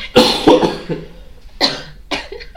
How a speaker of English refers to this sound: just cough break. So sorry.